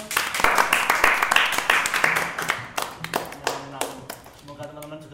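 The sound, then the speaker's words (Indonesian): A crowd claps in a dense burst of sharp hand claps that gradually thins out into scattered claps, while voices start talking beneath the fading applause. “Tepuk tangan dong.”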